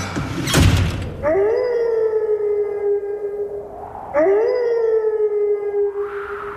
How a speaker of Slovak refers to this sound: Tak, tak, táto úvodná zvučka je naozaj pravdivá krátko po 20. hodine 30. minúte 14. februára.